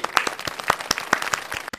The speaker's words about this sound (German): Das war mir einfach nur mal wichtig zu erwähnen. Können wir genauso, da mal klatschen? Ja, genauso.